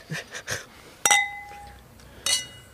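Glasses of Prosecco clink together in a toast, with two bright ringing chimes about a second apart, each one holding a clear sustained tone after some softer taps at the start. Fairly loud, with no talking.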